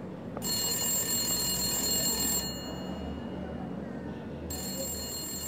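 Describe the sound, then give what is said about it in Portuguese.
A red telephone's bell rings at five in the afternoon in two bursts, a long ring, a pause, then another ring starting, bright, over a low background murmur. “Pois bem, Pontualmente, às 5 horas da tarde daquele dia, o telefone vermelho tocou.”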